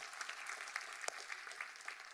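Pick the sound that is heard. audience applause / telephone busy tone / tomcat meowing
audience applause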